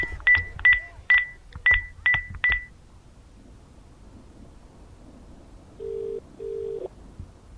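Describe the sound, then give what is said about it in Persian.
Seven quick touch-tone beeps as Debbie dials her father on the locker-room telephone, then a pause and two low, steady ringing tones on the line. No one speaks. “دبی بعد از صحبت با بچه ها خیلی سریع با تلفن رخکن با پدرش تماس گرفت”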